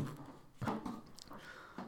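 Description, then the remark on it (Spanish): A quiet sip from a drink, with a couple of soft wet slurping and swallowing noises over about two seconds, no talking. “Le voy a dar un trago a esto para agarrar valor.”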